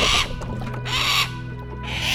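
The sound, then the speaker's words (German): An unusual bird in Ireland gives three harsh, raspy calls, evenly spaced about a second apart, loud, with a low steady rumble underneath and no voices. “Ein außergewöhnlicher Vogel.”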